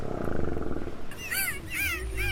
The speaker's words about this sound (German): Und aus einer Verkettung von verschiedenen Strophen entsteht ein Gesang. Der auch erlernt werden muss. Das ist nicht bei allen Tierarten der Fall, die spektakuläre Geräusche machen, aber doch bei einigen. Wale singen